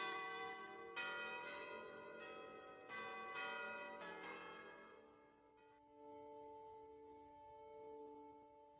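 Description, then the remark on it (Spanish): The bells of the convent of San Francisco peal for a wedding in a rapid, overlapping sequence of strikes, their rich tones ringing out and lingering, then settling into a sustained humming resonance as the ringing fades. No voices are heard. “Ese mismo año, las campanas del convento de San Francisco fueron echadas a vuelo, anunciando una gran boda.”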